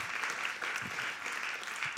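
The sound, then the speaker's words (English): A large crowd at a church claps steadily together, a dense wash of applause with no individual claps standing out and no voices over it. “I think we just need to give the Lord a big round of applause for what he did this weekend.”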